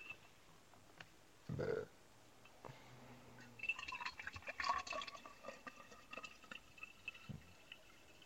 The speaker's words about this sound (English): filled my canteen with water, but not all the way.